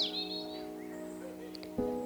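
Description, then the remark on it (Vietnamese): Birds chirp and twitter in short, quick calls at 5 in the morning, with a bright sweep at the start and a few brief notes later, all over a steady humming tonal background with no one speaking. “Ngày hôm nay đến khi tiếng chim hót ríu rít bên tai đánh thức đôi mắt đang say ngủ vào lúc 5 giờ sáng”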